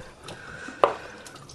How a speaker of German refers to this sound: Ich spüle eben dann die Paprika ab.